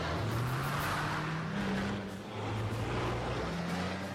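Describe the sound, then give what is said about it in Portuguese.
A video game SUV's engine, which a speaker thinks is a Grand Vitara, hums steadily, its low drone rising and falling in pitch as it drives, with continuous road and wind noise and no talking. “O Daniel ia curtir esse carro, eu acho que é um grande Vitara.”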